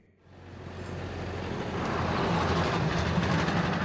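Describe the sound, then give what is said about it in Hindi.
A car rumbles along a road, its engine and road noise swelling quickly from near-silence into a steady, loud drone with a low hum underneath. No one speaks. “driver जी आ, यही गाड़ी रोक दो”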